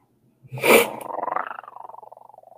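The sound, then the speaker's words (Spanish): An enraged tiger lets out a sudden, loud roar as it falls upon a man, quickly trailing off into a rapid, pulsing rumble of growls, with no one talking. “Con un terrible rugido, la fiera cae sobre su enemigo.”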